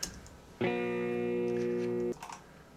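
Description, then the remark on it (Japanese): An acoustic guitar tone rings out alone for about a second and a half, holding steady and full rather than fading, then cuts off abruptly. “これアコギですもんね”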